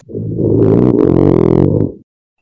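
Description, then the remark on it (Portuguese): A man lets out a single loud, deep snore, a rough rumbling drone lasting about two seconds, with no talking around it. “Tá, mas ele parou de roncar. Ele parou de roncar. Ah. Oh, não. Aí voltou, voltou, voltou, voltou, voltou.”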